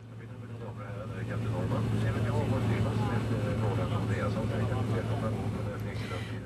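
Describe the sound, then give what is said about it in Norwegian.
A steady, low airplane engine drone fills the scene, rising slightly at the start and holding constant, with indistinct voices murmuring over it like passengers waiting in a cabin. “Da skal vi ut og fly.”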